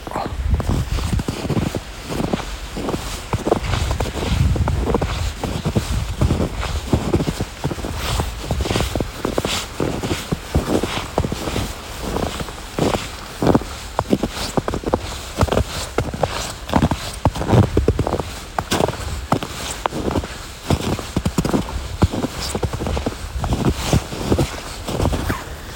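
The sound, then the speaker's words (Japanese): Steady footsteps crunch through fresh snow in Sapporo after heavy snowfall, one crisp step after another in an even walking rhythm, with light wind rumbling against the microphone and no voices. “まあ、こんな感じが、まあ、本来のね雪を踏みしめる音ですね”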